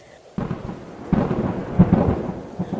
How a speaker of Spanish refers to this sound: Los truenos reventaban con una potencia espantosa y se veían en distintos sectores del cielo.